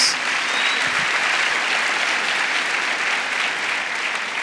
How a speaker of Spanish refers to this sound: Porque no damos un fuerte aplauso a Dios?